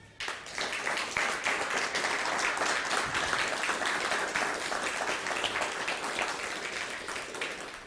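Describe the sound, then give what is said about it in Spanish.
Sustained crowd applause for the Eternal at the end of a religious teaching, dense rapid clapping at a steady loud level for several seconds, with no voices standing out. “Pues dale un fuerte aplauso al Eterno.”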